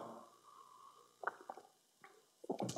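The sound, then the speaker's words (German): A preacher pauses during a sermon to take a quiet sip of water, with a few soft, wet gulping and swallowing sounds spaced over a couple of seconds, no talking. “Schluck Wasser.”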